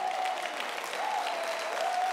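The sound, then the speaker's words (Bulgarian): Steady applause from an audience at a sermon, a dense, continuous patter of many hands clapping at moderate volume, with a faint tone humming underneath and no voices. “Аз си мислих, че ще има жени, и зрели мъже, които ще пляскат на тия проповеди.”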